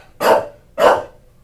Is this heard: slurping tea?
no